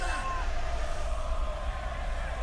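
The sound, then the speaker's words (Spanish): A large stadium crowd chanting olé olé olé during a haka, a dense, continuous wall of many voices that stays loud and steady throughout, with no single speaker standing out. “en el medio del jaca se empieza a escuchar ole ole ole Diego Diego”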